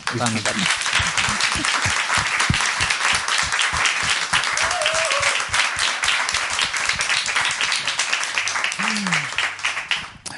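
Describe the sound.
Sustained applause from a crowd for a producer back from an expedition in the Sahara, dense rapid clapping at steady loudness for about ten seconds, with a few voices briefly audible underneath before it tapers off at the end.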